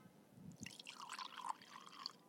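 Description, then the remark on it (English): Wine pours from a twist-off bottle into a glass, a fairly quiet gurgling stream lasting about two seconds after a soft knock at the start, with no voices. “And by me keeping it real today, I'm going to have a little wine. Hold on.”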